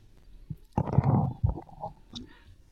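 A cat named Winnie purring, a low, uneven rumble that swells for about a second, joined by a few soft rustling bursts, then fades back to a quiet murmur.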